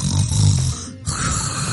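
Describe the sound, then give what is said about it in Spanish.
A voice imitates a mother's snoring with a rough, rumbling inhale, a brief pause, then a buzzy exhale, fairly loud with no other talk. “como que ronca para arriba y para abajo.”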